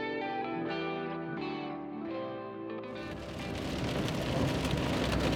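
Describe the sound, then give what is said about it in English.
Steady, hissing rainfall from a thunderstorm on Route 66 in Oklahoma, heard while driving, swells in about halfway through and pours heavily to the end, following a few seconds of sustained musical tones that shift in pitch. No one speaks. “It was a dark and stormy day, almost as if there were forces against us, wanting a, to keep these stories of Oklahoma silent.”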